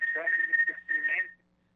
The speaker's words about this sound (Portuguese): se o senhor não baixar o rádio, a gente não vai conseguir conversar, né, Eduardo? Porque retorna para a gente aqui da microfonia